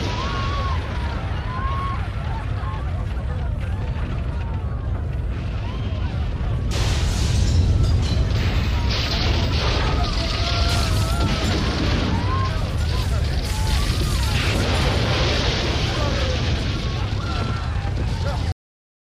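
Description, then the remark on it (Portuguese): A dense, distorted roar of explosion-like booming fills the whole stretch, heard through a phone line in the background of calls from hotel guests and making the line sound disconnected. It swells louder partway through, with indistinct voices buried in the noise. “Nenhuma reserva está correta e a linha fica soando desconectada devido a algo que soa quase como uma explosão no fundo.”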